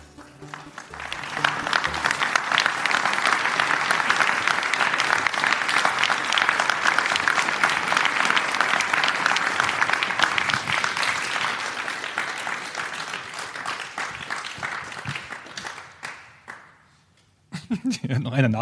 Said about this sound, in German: Also in den anderen Städten war mehr Applaus. Ne? Ja, da war mehr Applaus, ja.